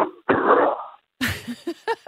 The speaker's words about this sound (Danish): Undskyld, jeg griner. Det er bare lidt sjovt, at jeg sidder og taler, og du bare hoster. Har du, øh, har du en astmaspray, du lige kan tage?